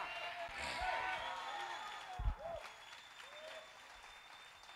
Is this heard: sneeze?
no